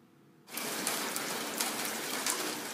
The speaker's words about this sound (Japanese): その日、雨は夜になっても止まなかった。